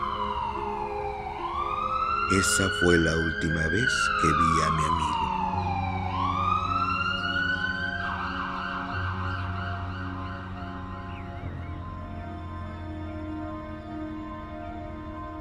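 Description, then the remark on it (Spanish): A loud ambulance siren wails through a village, its pitch sweeping slowly up and down in long cycles, while a person speaks briefly beneath it. “La sirena se escuchaba en todo el pueblo.”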